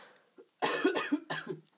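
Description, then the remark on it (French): A quick run of about three harsh, raspy coughs, fairly loud, with nothing else around them. “Quand tu veux tousser, tu tournes ta tête”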